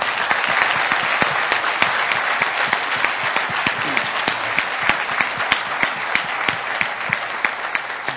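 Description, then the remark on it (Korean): An audience applauds steadily as applause of glory to God, a dense wash of many hands clapping with sharp individual claps standing out, holding an even, fairly loud level throughout without any voices. “하나 의배 영광의 박수 올려드릴까요?”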